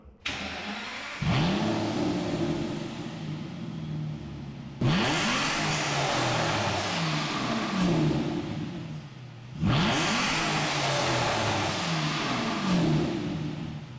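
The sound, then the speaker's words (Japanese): The 6-litre V12 engine of a 2011 Aston Martin Rapide, a long-nosed car over 5 metres long, starts up and is revved repeatedly, its pitch climbing and falling in a series of loud throttle blips over a steady idle, with no talking. “変わっては2011年式アストンマーティンラピード”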